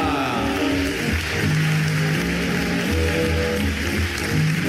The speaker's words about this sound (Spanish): Fuerte el aplauso para recibir a Pepe Segarra.